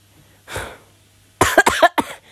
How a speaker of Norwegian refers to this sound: jeg beklager all hostinga med denne episoden her. Jeg er bare så litt liksom, så vanskelig vanskeligheter med lungene mine akkurat nå.